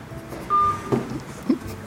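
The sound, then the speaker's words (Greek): A single short electronic telephone keypad tone beeps over a faint background hum as someone dials a phone, followed by a couple of soft clicks. “Εντάξει, ρε, άμα, άμα, άμα θες πάρτε με ένα, ένα τηλέφωνο τώρα.”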